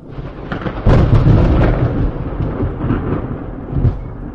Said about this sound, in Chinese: 咔嚓一声，惊雷炸响，紧接着一道猛烈的闪电，如同是一把利剑一般，划破了天空。而后又是一声惊雷。